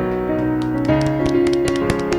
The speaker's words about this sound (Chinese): 今天掌声好单薄啊！